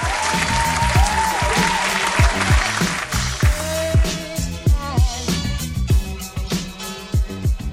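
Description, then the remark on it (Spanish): An applause sound effect: a crowd claps densely and loudly, the clapping thinning out after a few seconds, while rhythmic low thumps and a few rising tonal whoops continue underneath. “Efecto de palmas.”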